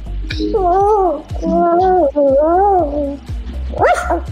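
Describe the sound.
A dog lets out three drawn-out, wavering barks in quick succession, fairly loud, followed by a shorter yelp, while its owner talks alongside, teaching it to beg.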